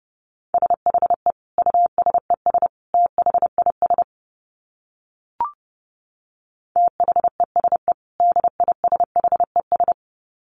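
Fast Morse code beeps at 30 words per minute on a single steady mid-pitched tone, keyed in quick groups of short and long pulses, with a silent pause broken by one brief click before the keying resumes.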